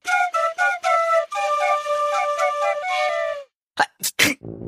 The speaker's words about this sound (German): So klingt das, wenn ein Astronom erkältet ist und normalerweise sagt man Gesundheit. Von mir aus. Gesundheit. Danke.